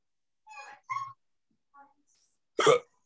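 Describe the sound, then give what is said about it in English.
A few brief voiced catches of breath build up, then one loud, sharp sneeze bursts out near the end. “Bless you.”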